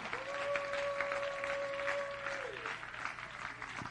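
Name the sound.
audience clapping hands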